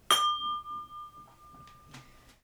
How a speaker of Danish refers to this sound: Øhm, blandt andet så faktisk vinglas lyder jo ret fedt også. Jeg skal lige have det her kabel med. Det lyder skide godt det her glas.